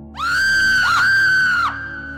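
A woman in a morgue lets out one long, piercing scream of fright as a male corpse beside her opens its eyes and sits up; high-pitched and loud, holding steady for about a second and a half with a brief waver midway before breaking off.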